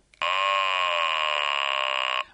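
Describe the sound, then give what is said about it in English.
A mechanical buzzer placed in the end of a 17.5-centimetre acrylic tube shaped like a human vocal tract saying the vowel R gives one steady, loud, nasal "rrr"-like tone for about two seconds before cutting off cleanly. No one speaks. “This one is shaped like the vowel R.”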